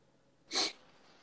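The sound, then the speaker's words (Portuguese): A single sharp sneeze bursts out, brief and fairly loud, then fades back into a quiet hiss. No one speaks. “Deus abençoe.”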